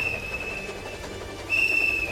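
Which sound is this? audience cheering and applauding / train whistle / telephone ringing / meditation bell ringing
train whistle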